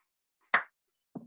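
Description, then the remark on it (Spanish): A single sharp hand clap rings out amid silence as a cue before a live recording starts, followed about half a second later by a softer, duller second sound. “Hago un silencio, aplaudís, un poquito de silencio más y empezás.”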